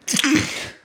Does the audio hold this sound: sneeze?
yes